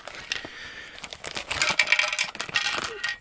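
Small hard plastic pieces, a small accessory part for a Raspberry Pi case, rattle and clatter inside a crinkling plastic bag, a busy jumble of light clicks and rustles lasting a few seconds with no talking.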